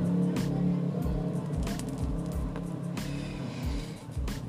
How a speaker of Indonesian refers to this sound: anjing ini motor siapa sih anjing kenapa nggak ngenakin kuping gue banget bocah kampung bocah kampung